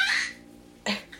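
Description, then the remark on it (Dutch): A baby in the background gives two short, high-pitched laughing squeals, the first longer and brighter, the second a quick burst after a pause, moderately loud. “sorry voor mijn baby op de achtergrond.”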